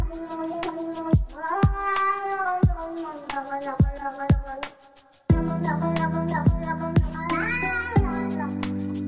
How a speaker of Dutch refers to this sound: Ja, och. de kat die de toon zet. Ach, dat is prachtig. Even kijken. Dat is een kat, hè?